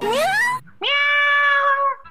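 Two loud, close cat meows: a short one rising in pitch, then after a brief pause a longer, steady, drawn-out meow that fades at the end.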